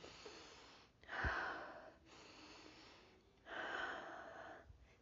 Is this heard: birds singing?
no